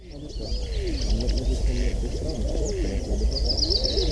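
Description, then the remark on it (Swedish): A citrine wagtail, picked up with a parabolic microphone, gives three thin, high buzzy calls, the clearest one near the end, over a busy background of lower bird sounds and steady rumble. “Och så sen så lyssnar man på parabolen så lockar den ju tre gånger tydlig citronära eh, som man kan eh, plocka upp.”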